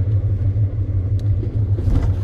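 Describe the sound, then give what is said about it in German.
Steady low engine rumble inside a large, modern, comfortable bus moving through Georgia, a constant droning hum with faint road noise and a brief higher rattle near the end, no talking. “Also ihr hört schon, hier gibt es eine Menge zu entdecken und ähm, ja, sehr komfortabler Bus.”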